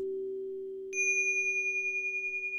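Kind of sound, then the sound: signal or alarm, bell chime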